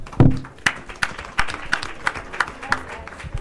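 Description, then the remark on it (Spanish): Audience applause as a book is presented as a prize: steady, evenly spaced claps, roughly three per second, sharp and moderately loud, with a brief low murmur at the start and no clear speech. “Bueno, pues le vamos a, a dar este, la libro de teoría de derecho organizacional de Sengaje, la primera edición, y un aplauso del público.”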